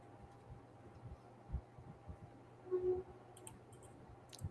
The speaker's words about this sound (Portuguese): isso aí é um trem, é? Deu pra ouvir, foi? É um trem, é? Novidades, né? Sério? Sério mesmo que é um trem? que situação, meu amigo. Eu acho que é o VLT, tá?